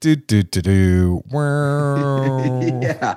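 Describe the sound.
A single voice mimics someone tumbling into a pothole: a few quick sung syllables, a long sagging held note, then another drawn-out vocal phrase ending in a short laugh.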